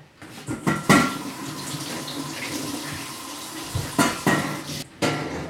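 Water runs steadily from a tap into a kettle for several seconds, an even gush framed by a few sharp clunks and knocks of the kettle being handled at the start and end; the water is being put on to boil.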